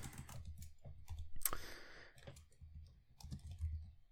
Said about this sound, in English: Oh, right. I was typing it into the spreadsheet.